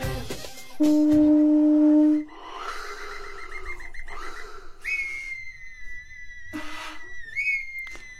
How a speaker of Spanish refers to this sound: Toda esta música que están escuchando, mis amigos, es parte de lo que se escucha dentro del baño de Temazcal. El baño de Temazcal es una tradición ancestral que nos heredaron nuestros abuelos.